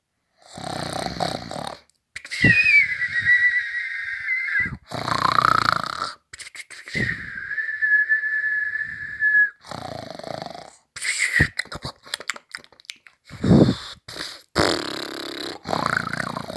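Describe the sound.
A voice imitates the loud, rumbling snores of a dragon sleeping under an umbrella, several long drawn-out breaths with whistling, wheezy tones in between, repeating in an uneven rhythm with no spoken words.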